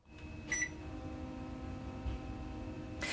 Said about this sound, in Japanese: エアコンの起動音に決まってるやろわかるかでもねエアコンの起動音これ身近に潜む幸せな音ですよねこういうものに気づける人間になりたいですね